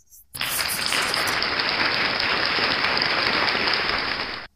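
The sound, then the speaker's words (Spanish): A burst of applause from a crowd, steady and dense for about four seconds, starting abruptly and cutting off sharply, with no talking over it. “Ponle unos aplausos aquí a este vato, por favor.”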